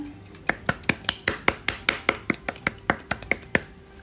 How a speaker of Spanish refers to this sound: Así que puede entrar nuestra invitada. Un aplauso, por favor, para él um, uh. o ella.